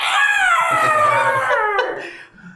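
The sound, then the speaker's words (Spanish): A horrifying spectral shriek from a spectre struck by a short sword: one loud, high, howl-like wail that slowly slides downward in pitch for about two seconds before cutting off and fading, with no talking. “Muy apenas logras clavar tu espada corta sobre el espectro, que lanza un chillido horripilante.”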